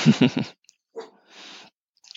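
A dog gives three quick barks in a rapid burst after a knock on wood, taking it for someone at the door, then falls quiet apart from a few soft snuffling, breathy noises. No one speaks.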